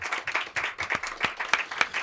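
An audience applauds steadily, a dense patter of many hands with a few sharper individual claps standing out, moderately loud and without any talking.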